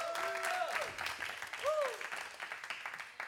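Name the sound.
audience clapping hands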